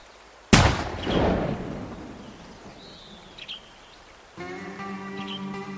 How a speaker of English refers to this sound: She heard the gun go off and saw the smoke coming out of the barrel.